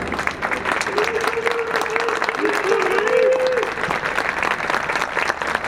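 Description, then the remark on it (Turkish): Dense, steady applause from a large crowd of civilians in the courtyard at Anıtkabir during the 29 October ceremony, starting as President Erdoğan appeared after the wreath was laid at the mausoleum, fills the whole stretch, with a faint murmur of voices and a brief tonal line rising above the clapping in the middle. “Mozeleye çelenk bırakılmasının ardından Cumhurbaşkanı görünür görünmez alkışlar başladı.”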